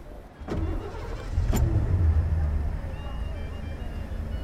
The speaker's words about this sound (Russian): Машина двинулась вперед, к стене. Шофер искал, где бы повернуть.